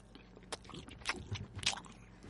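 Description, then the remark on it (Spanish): Wet chewing of a bite of cured ham, with several irregular smacking, squelching mouth sounds and soft crunches, no talking. “Con el jamón, joder. Mira, vamos a hacer un en a ver que se note el moflete como”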